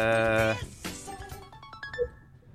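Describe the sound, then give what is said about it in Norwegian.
A phone alarm tone plays: a bright, sustained synthetic chord for half a second, then a quick run of short tinny chiming notes, moderately loud, with no talking. “Bare se om du finner den på telefonen din nå, eller? Ja, ikke sant. Hvordan... Eh, Altså alarm Nei, hvordan kan man Hvor er jeg?”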